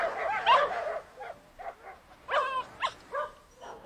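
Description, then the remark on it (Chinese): A large German shepherd (black-back) barks and yips in a string of short, irregular bursts, some higher and whining, at moderate loudness with no talking; German shepherds being looked at for purchase. “雪梨初次近距离的接触体型这么大的黑背，心中有一点害怕。”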